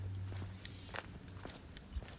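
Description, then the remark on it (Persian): Steady footsteps of a person walking on a hard surface on a cold winter morning, several paces at a walking rhythm, with a low background hum and no talking. “همینطور که قدم میزنیم من یکی از نوشته های رضا کایو رو میخوام براتون بخونم”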